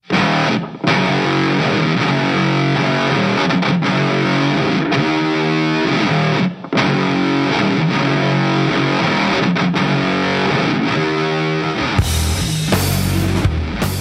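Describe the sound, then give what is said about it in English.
A loud, distorted electric guitar jam from a guitarist's forthcoming solo album, played as a sneak preview, with dense chugging chords and a steady driving rhythm, briefly cutting out twice before ending in a burst of noisy feedback-like wash. “And that's a cool jam, right? I wish I could play the whole song, but I can't because, you know, it's a sneak preview.”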